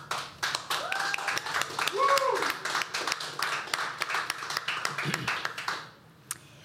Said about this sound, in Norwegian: Veldig flott. Gi dem en applaus, da.